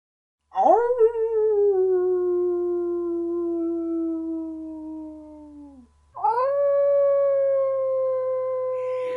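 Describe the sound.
A human voice imitates a wolf's howl: two long, steady, drawn-out howls, the first lasting about five seconds and the second shorter. Both are loud, with no other sounds.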